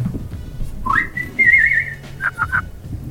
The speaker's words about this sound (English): Yeah, do it again. Do it again. Whistle into this.